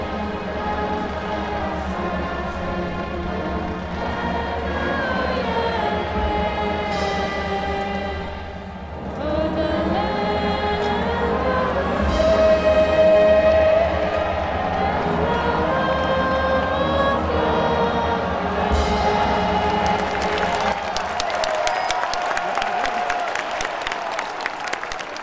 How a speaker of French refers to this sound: Tout d'abord retentit l'hymne américain. Tout le monde se lève, main sur le cœur.